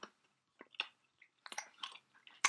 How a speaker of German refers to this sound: haben wir noch andere Themen oder schmatzen wir noch? Hm, heute wird nur geschmatzt.